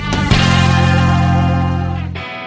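A loud burst of Argentine rock music, the opening track of a studio album, driven by heavily distorted electric guitar, with a sustained chord ringing out under thick effects before cutting off abruptly near the end. No one speaks.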